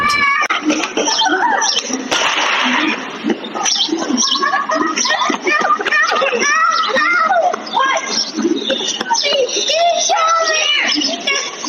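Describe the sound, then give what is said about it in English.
Children's high-pitched voices shout and squeal continuously over one another, lively, as kids play outdoors on Candlewood Lane on a Saturday afternoon, with no clear words standing out. “You'll see kids playing, hear a gunshot”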